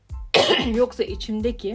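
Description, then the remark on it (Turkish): A single sharp throat clearing bursts out, immediately followed by a person starting to speak. “Bu ses nedir boğazımda?”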